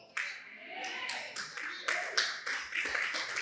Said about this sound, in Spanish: No, si ese aplauso es para Dios, es muy poquito.